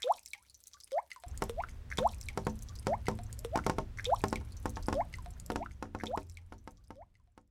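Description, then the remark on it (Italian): Rainwater drips from house gutters after a long day of rain, in a steady, overlapping rhythm, each drop a clear plop, over a low wet background hum. No voices. “Come quando, dopo una lunga e silenziosa giornata di pioggia, le grondaie delle case scandiscono il tempo gocciolando ritmicamente, ogni casa, ogni grondaia, con un ritmo proprio.”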